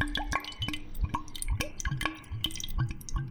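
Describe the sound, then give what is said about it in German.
Wine pours into a glass in a series of quick glugs and drips, with a faint ringing note from the glass. No one speaks. “Ich gehe da mal auf Nummer sicher und ich schütte mir mal so ein Gläschen ein jetzt.”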